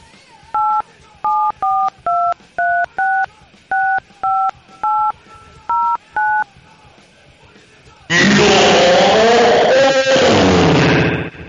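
A telephone number is dialed on a keypad to call an original member of a band: about eleven short, evenly spaced touch-tone beeps, each a steady two-note pitch, followed after a pause by a long burst of loud, harsh noise.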